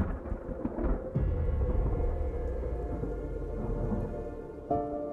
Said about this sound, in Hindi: जब सर्दियों का मौसम आया तो एक दिन बहुत ही ठंडी हवा चलने लगी और साथ में हल्की फुल्की बारिश भी शुरू हो गई